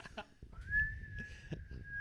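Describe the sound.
A person whistles a single long, steady, slightly rising note, fairly loud, as a mock imitation of a fart, with faint low rumbling and background noise underneath.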